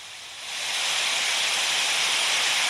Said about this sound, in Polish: Zaznaczone. Gwałtowny sztorm 102 do 115 km na godzinę.